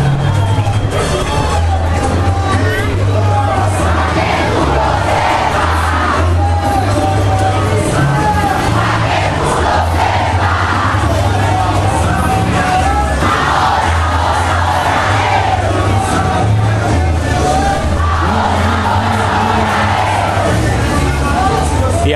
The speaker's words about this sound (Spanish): y ustedes pueden escuchar la, música y la algarabía que transcurre por la calle San Sebastián. Así que vamos a escucharlo desde este segundo piso. Vamos a escuchar un poquito.